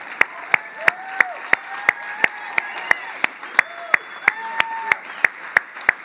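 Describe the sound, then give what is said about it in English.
An audience claps together in a steady, rhythmic beat, sharp loud claps about three per second, while voices call out and whoop over the clapping, applause given for the King of Kings and the Lord of Lords. “Hey, would you give a bigger applause for the King of Kings and the Lord of Lords who has been faithful, faithful, faithful, faithful, faithful?”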